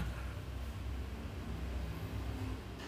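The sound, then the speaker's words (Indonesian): A motorcycle engine passing outside rumbles with a steady, noisy drone and low throbbing hum, holding at an even loudness throughout with no voices. “ada lihat guys ya ada motor nih emang berisik”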